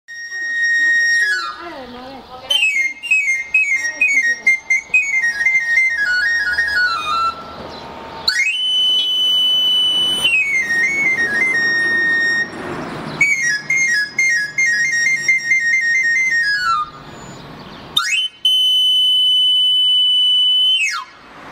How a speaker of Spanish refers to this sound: Pues sí, para los que les llegó el sonidito al corazón, o al menos les despertó algo, pues sí, es el sonido que hacen los afiladores.